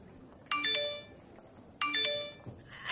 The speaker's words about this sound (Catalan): El so del mòbil de la Sara trenca aquest moment.